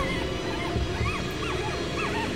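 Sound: puppy whimpering and yipping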